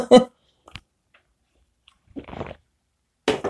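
Handling noises of a cup of London fog tea, with a few light clicks and knocks, followed by a short wet slurping sip as the tea is drunk, and another brief burst of sound near the end.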